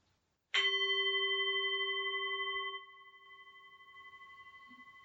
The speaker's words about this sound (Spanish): Al finalizar la meditación, voy a tocar el gong y a dejar tres minutos de silencio, después de los cuales voy a volver a tocar el gong y terminar el audio.